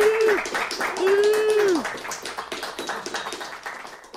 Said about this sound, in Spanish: Un aplauso, por favor, a, ellos.